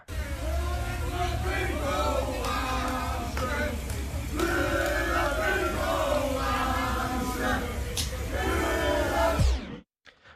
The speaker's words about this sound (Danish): Og det er lidt det samme, når … han er færdig med sine koncerter, så bliver der bare råbt og skræget det her.